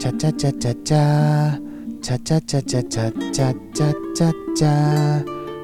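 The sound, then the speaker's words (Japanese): A single voice sings a quick, bouncy "cha-cha-cha" melody, imitating a quiz show's thinking-time jingle during a quiz on what animal Fure Fure-chan is, with rapid staccato syllables broken by a few held notes, fairly loud. “シンキングタイムです、これは。”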